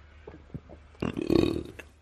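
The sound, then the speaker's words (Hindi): A voice imitates a burp: one loud, drawn-out, croaky belch lasting most of a second, following a few soft murmurs, then fading into quiet. “अपनी कमाई करके खाऊंगा मजे से डकार दूंगा”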